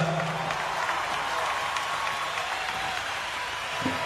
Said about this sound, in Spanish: Y el gran aplauso se lo lleva la Orquesta Sinfónica de Mendoza.